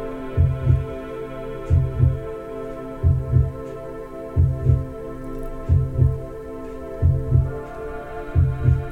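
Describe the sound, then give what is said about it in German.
A slow, steady heartbeat thumps in lub-dub pairs, seven beats in a row, deep, over a soft, sustained humming drone with no voices. “Und du bist mitten im Zentrum, im Herzschlag des kosmischen Herzens mittendrin.”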